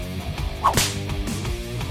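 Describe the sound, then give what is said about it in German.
A single sharp crack of reins snapped like a whip, loud, near the middle, over a steady bed of tonal music that continues throughout. “Und er fletscht einmal die Zügel.”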